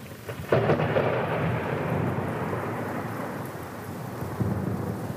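A deep roll of thunder during a thunderstorm breaks at about half a second and rumbles on steadily, with a constant hiss of rain in the background and no voices.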